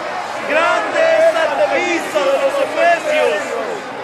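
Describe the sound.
An enraged crowd of many voices shouting and yelling over one another, loud and continuous, with raised, agitated cries rising and falling throughout.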